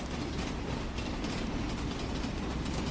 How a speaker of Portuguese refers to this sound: Ei, vovô! Vamos, olha o trem das onze! Ele chegou!